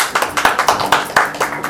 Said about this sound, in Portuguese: Muitas, muitas, muitas palmas!